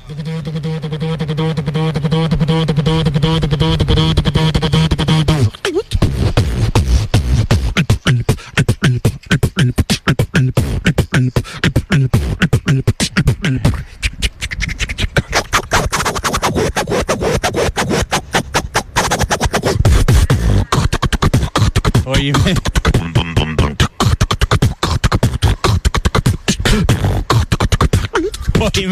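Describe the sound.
A beatboxer imitates techno with the mouth: a steady buzzing synth-like hum opens, then dense, fast, loud percussive beats and clicks drive on continuously, with no talking.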